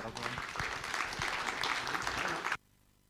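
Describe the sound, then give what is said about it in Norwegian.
An audience applauds with steady, dense clapping for about two and a half seconds, then it stops abruptly, leaving near silence. “Vi gir en applaus til”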